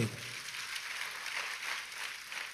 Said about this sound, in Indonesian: Ya kita tepuk tangan yang paling meriah buat Tuhan